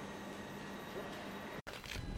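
Steady outdoor ambience at a tram stop in Gothenburg, a continuous broad rumble and hiss of traffic and rail noise, briefly cut off for an instant near the end before resuming.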